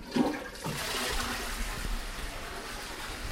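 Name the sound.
toilet flushing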